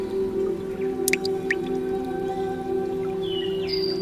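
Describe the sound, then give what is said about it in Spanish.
A few clear water drops plink one after another over a steady, humming drone, with a soft rising watery tone near the end; no voices. “Eres esa gota, esa gota constante, con un sonido particular.”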